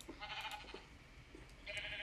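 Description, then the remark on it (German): Two sheep bleats, one early and one at the end, each a wavering, nasal baa with a quiet pause between them. No one speaks. “Schafe, geht weg.”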